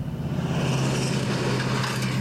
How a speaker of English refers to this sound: as a big truck drives by.